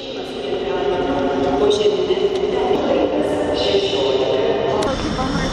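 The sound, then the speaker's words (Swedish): Steady, busy train station ambience: a constant rumbling hum of rail machinery fills the space while indistinct voices murmur in the background throughout. “Nu äntrar jag tågstationen.”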